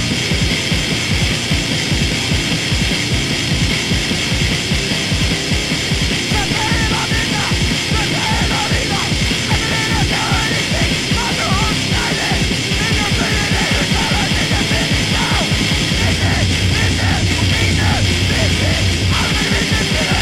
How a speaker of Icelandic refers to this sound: Tökum eitt stutt lag eh, frá Já, ég kalla Akranessi Þetta er Straight Edge band